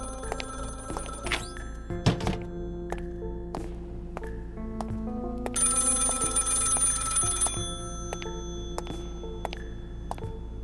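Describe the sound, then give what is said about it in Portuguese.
A telephone out on the street rings in a bright, rattling burst of a couple of seconds, surrounded by scattered clicks, thumps and steady electronic hums; no one speaks. “puxo o telefone, coço no ouvido e fico esperando alguém responder alguma coisa.”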